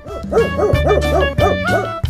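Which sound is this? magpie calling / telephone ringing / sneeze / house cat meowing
magpie calling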